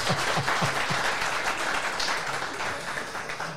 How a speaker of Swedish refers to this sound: Jag vet inte om du hörde det, men det var en som applåderade här inne i rummet.